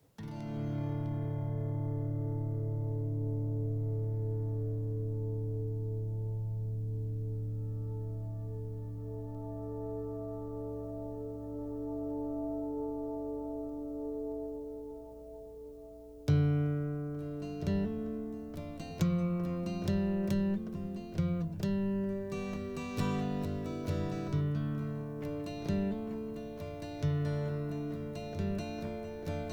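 A folk song played on the radio to close a folk special opens with long, sustained droning tones, then halfway through a plucked, guitar-like part comes in with steady rhythmic notes. The music is fairly loud and there's no singing yet.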